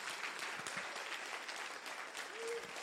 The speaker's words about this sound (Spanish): Alguien tiene un aplauso fuerte a Jesús.